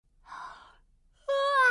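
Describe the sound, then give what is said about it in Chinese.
A big voiced yawn: a soft, breathy inhale, a short pause, then a loud, sustained open-mouthed vocal tone that holds steady to the end. “我打了一个大大的哈欠”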